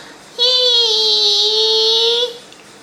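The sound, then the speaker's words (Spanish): A person vocally imitates the screech of a braking car or motorbike: one sustained, high-pitched squeal held steady for about two seconds, loud, then cut off abruptly. “Igual uno esperaría el grito, como cuando escuchás que frena un auto o una moto, estás en tu casa la noche y escuchás un”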